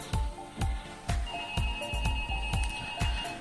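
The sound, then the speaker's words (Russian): A phone rings with a musical ringtone: a steady thumping beat about twice per second under sustained electronic tones, clear, with no one talking. “Ну вот, надо ответить на телефон, я же при исполнении все-таки.”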